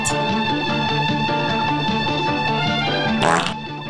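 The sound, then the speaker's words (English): A short, loud, raspy fart bursts out near the end, rising above a steady bed of upbeat music that plays throughout. “Oh my god, did you fart?”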